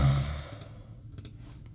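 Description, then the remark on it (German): Soft computer mouse clicks in two quick pairs, separated by a short pause, after a breathy exhale at the start. No one speaks. “Ich klick und guck noch ein bisschen.”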